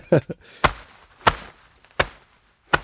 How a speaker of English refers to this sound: Yeah, I will I will do a punch on myself, but I won't hurt myself. I try not to hurt myself.